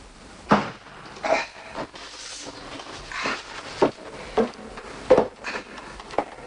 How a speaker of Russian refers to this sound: Внизу неожиданно открылась дверь, и послышались шаги Луки.